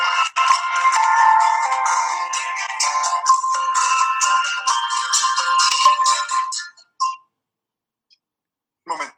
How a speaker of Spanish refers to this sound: Tranquilo está el, celular empeñado en molestar.